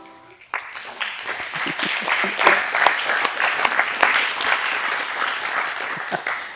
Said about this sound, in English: Keep clapping, I have another half hour.